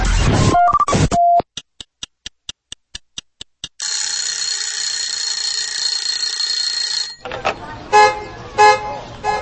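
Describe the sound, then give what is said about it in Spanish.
Traffic noise with car horns honking loudly for about a second, then a steady ticking and a harsh, continuous ringing, followed by voices. “Tráfico, trabajo, escuela.”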